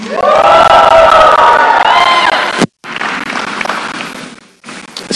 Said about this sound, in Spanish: Otro grito más.